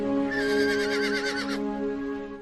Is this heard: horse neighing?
yes